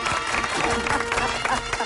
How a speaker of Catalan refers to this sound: Bueno, gràcies, eh? us estic aplaudint. Moltíssimes Bravo! Gràcies. Bravo! Bravo!